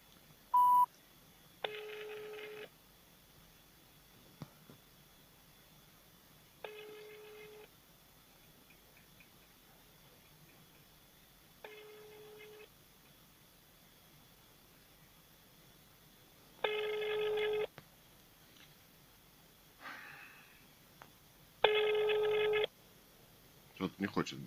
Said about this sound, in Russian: Номер не отвечает. Так, звоним начальнику отдела гражданских дел